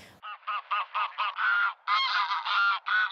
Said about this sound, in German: Was man hört, ist das Geschnatter von den, ich würde mal fast sagen, Hunderten von, von Graugänsen und Enten, die hier schon versammelt sind.